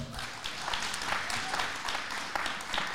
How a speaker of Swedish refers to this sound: Det är nästan värt en applåd här i salen, eller hur?